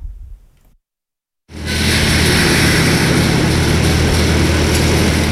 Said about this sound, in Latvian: Fonā dzirdams, kā Hermaņa ielā pie uzvaras parka uzstāda pāris metrus augstu metālisku žogu.